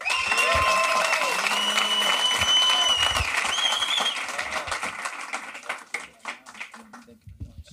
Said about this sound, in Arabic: يلا بينا نسقف واحد اتنين تلاته أربعة خمسة أرجو يكون ده أعلى تسقيف في تاريخ البودفيست سقفة جامدة جدا